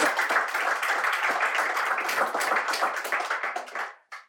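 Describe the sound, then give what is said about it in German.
A crowd applauds steadily, with dense overlapping claps at an even, sustained loudness for about four seconds, then fades out abruptly at the end. “ja guck mal guck mal mal Applaus hinterher finde sehr gut”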